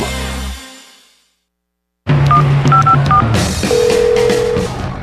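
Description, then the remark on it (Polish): After a short fading sound and a moment of silence, a quick series of touch-tone dialing beeps plays over busy background noise, followed by a single longer steady ringing tone of a phone call that goes unanswered. “Anka, nie odbierasz?”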